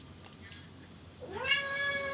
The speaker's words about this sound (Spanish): Se paran un momento porque Orión inicia a maullar